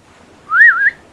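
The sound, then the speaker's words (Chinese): A single long, comical whistle through pursed lips by the character Wolf Larsen: a clear, fairly loud tone that slides up, dips, and flicks up again before stopping abruptly, with no talking around it. “狼拉森撅起嘴，打了一个又长又滑稽的口哨。”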